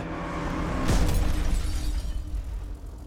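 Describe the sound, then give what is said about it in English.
A car crash as Karen's car leaves the road: engine rumble builds to one loud, sharp impact about a second in, followed by shattering glass and clattering debris that trail off over the next two seconds. No voices. “Which is why I find it more likely that someone was trying to kill Karen because after the plutonium didn't work, many think she was run off the road and possibly murdered.”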